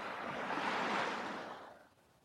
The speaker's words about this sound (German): Du siehst das Meer vor dir, wie es türkisblau glitzert. die Wellen, du hörst das Geräusch der Wellen, du riechst das salzige Wasser, du spürst den Sand unter deinen Füßen und du schaust auf das Meer, auf die Wellen.